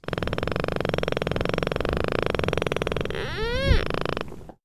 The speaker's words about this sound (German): So ähnlich stoßen auch die Schweinswale in hoher Frequenz Klicklaute aus.